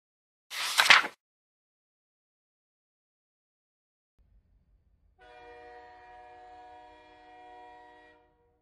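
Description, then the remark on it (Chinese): A short burst of hissing noise, then a low, pulsing train rumble that swells into a long, steady, harmonically rich train horn blast lasting about three seconds, from a train speeding across the land. No one speaks. “呜！一列列火车在大地上奔驰，轰隆隆！”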